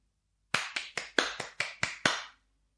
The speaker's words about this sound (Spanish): Eso es un aplauso. Una palmada es esto.